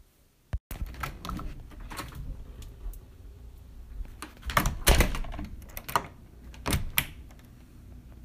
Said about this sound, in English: Okay, so this sound is my front door opening and then closing and then locking it.